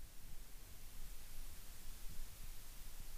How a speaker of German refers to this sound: Mein Gott, draußen, ich glaube, draußen regnet es super, das ist voll creepy Sound hier gerade.